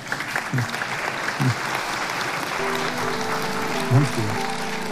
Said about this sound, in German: Ich danke Ihnen für Ihre Aufmerksamkeit. Applaus